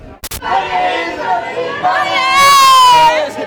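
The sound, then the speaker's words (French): At a karaoke session that has just begun, loud, strained voices yell and wail into a microphone, slightly harsh, with one long rising shout near the end after a brief click at the start. “les gens qui hurlent dans mon micro, j'adore ça.”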